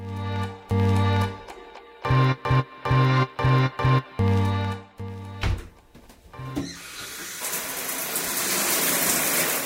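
shower water running

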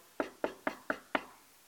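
knocking on a door

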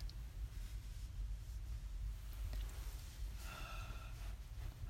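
yawn

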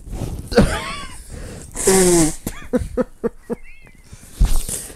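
nose blowing

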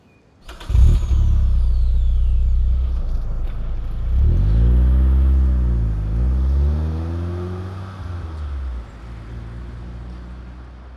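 car driving away

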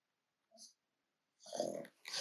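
dog scratching

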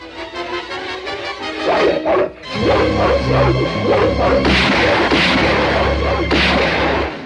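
hunting dog barking

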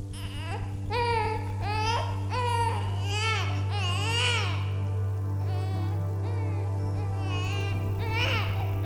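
baby crying

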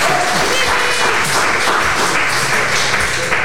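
audience applauding

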